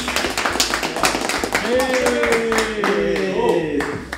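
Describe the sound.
A round of applause: quick, steady hand claps running for about four seconds, with a voice calling out over the clapping in the second half.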